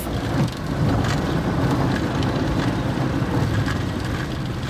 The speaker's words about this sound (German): Die alte Propellermaschine hat durchgehalten. Nach knapp zwei Stunden Flug setzt sie mit einem Rums auf der holprigen Landepiste auf.